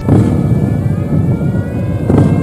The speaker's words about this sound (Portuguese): uma moto grande freando com tudo e levantando poeira